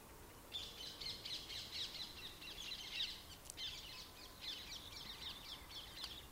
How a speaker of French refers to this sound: et doucement vous accueillez le silence habité de là où vous êtes ici, en ce moment, nous entendons les oiseaux. On entend la ville qui, qui bruisse.